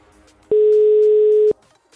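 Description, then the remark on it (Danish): A single steady telephone ringback tone from an outgoing call to the company that supplies fruit sounds for about one second, loud and clear, with only faint background hiss before and after and no talking. “Men jeg ved ikke, hvor den kommer fra endnu, så det jeg gør, det er, at jeg ringer op til Frugtkurven, som det firma hedder, hvor vi får frugt fra.”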